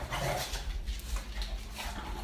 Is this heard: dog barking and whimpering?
yes